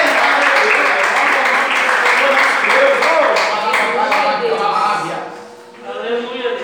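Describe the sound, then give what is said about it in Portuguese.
An audience claps in praise of God in a loud, dense burst of applause while voices call out over it, the clapping thinning out near the end as shouting voices continue. “E as palmas que louvem a Deus.”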